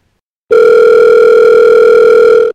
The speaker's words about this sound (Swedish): Ska vi ringa upp Filip Pirpic? Ja, vi kollar i alla fall. Vi, vi provar att ringa upp Filip. Svarar han inte så får vi ringa någon annan skåning som pratar likadant. Vi ringer upp Filip. Ja, ring upp Filip nu.